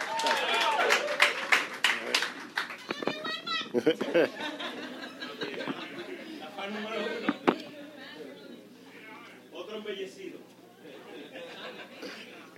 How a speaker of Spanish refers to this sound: ¡Un aplauso!